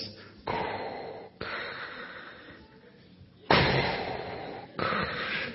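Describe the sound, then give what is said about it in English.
Someone imitates Darth Vader's heavy, mechanical respirator breathing: long, hissing breaths drawn in and pushed out in a slow, steady rhythm, fairly loud, with no talking. “And then Darth Vader appeared at the end, you know, breathing the way he does.”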